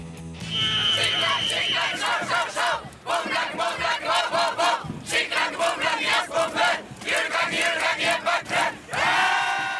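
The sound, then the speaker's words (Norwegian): A large crowd of over 13,000 graduating Norwegian students (russ), dressed in red and blue, cheers and chants loudly at their national gathering in Kongeparken, just outside Stavanger, Norway. The shouting voices rise and fall in repeated rhythmic bursts, with a brief dip before swelling again throughout. “Over 13 000 russ er akkurat nå samla på landstreff i Kongeparken rett utenfor Stavanger.”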